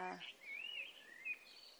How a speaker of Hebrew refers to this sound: הבלתי פוסק הזה, היפה, של השחרור, של המיינות, הציפורים האלה.